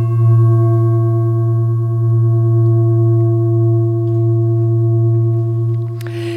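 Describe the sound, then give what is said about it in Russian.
A Tibetan singing bowl made of an alloy of seven metals (silver, copper, tin, iron, mercury, gold, lead), rubbed around the rim with a pine or rosewood stick, sings a steady, loud, sustained hum with shimmering overtones that hold evenly for several seconds, with no voices present. “Тибетские поющие чаши: исцеление звуком и вибрацией”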